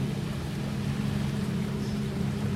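A steady, low motorboat engine drone from boats passing on a river hums continuously at moderate volume, with a faint wash of water noise and no voices.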